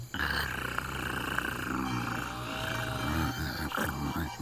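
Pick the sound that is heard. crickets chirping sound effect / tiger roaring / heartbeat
tiger roaring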